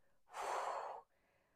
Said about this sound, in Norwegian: Og så når vi puster ut